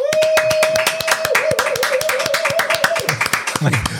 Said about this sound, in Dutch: Graag een daverend applaus van iedereen in de studio. Welkom, Leandro Trossard.